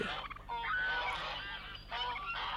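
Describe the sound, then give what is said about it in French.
A flock of wild geese led by Akka, heading toward the Scanian plain, honking with overlapping nasal calls that run continuously for a couple of seconds, fairly loud, with no voices. “Akka conduisit les oies sauvages vers la plaine scanienne.”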